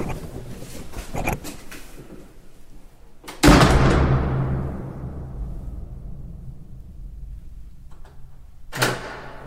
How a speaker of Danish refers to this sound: Det er et ekko, der vinder. Ja, og det er jo, fordi der er en afstand på nogle hundrede meter dernede. Øh, selve indgangstunnelen, som vi er i nu, det runger, og øh, det er sådan den der ikoniske, ribbede tunnel, der er 300 meter lang